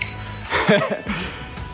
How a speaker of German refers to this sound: Und deshalb jetzt nochmal von mir Fahrradfahrende Grüße, das steht ja hier schon. Warte, ich klingel noch einmal.